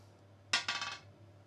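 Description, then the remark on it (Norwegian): A die is rolled across a hard tabletop to choose which brewery to start with: a sharp first knock, then a quick run of smaller tumbling taps that settle within half a second, fairly loud over a faint low hum. “Den tar vi da fra 4 til seks. Så kan du få trille.”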